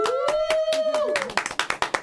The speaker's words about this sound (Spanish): Un aplauso.